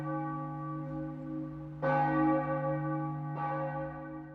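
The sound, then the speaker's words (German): Church bells ring out with a rich, sustained hum, two fresh strikes landing a couple of seconds apart over the lingering resonance, no voices present. “Es gibt große Glocken und es gibt kleine Glocken.”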